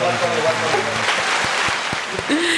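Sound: applause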